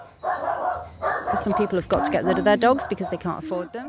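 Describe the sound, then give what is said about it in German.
Several dogs bark and yelp on Barbados in a busy, overlapping chorus, with sharp repeated barks and some higher whining cries, while a voice seems to be talking underneath. “Manchmal können sich die Leute die Hunde nicht mehr leisten. Sie setzen sie dann aus.”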